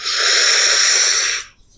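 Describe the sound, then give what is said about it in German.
A single long, forceful inhalation drawn against resistance through a breathing trainer held in the mouth, producing a strained, hissing airflow with a faint whistling tone for over a second before stopping abruptly; loud, no talking. “es gibt verschiedene Atemtrainer, äh, ähm, die würde ich dann in den Mund nehmen und gegen einen Widerstand”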